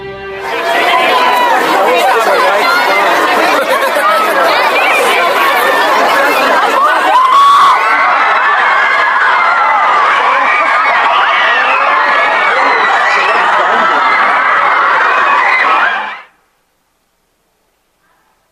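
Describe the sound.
A frenzied, near-hysterical crowd cheers and shouts nonstop, a dense, loud roar of many overlapping voices, some high and shrill, lasting about sixteen seconds before cutting off abruptly into silence.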